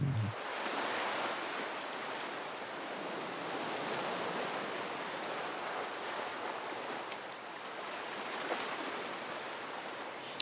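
Steady ocean surf rolls and breaks on a beach, a continuous broad wash of waves with gentle swells in loudness and no voices.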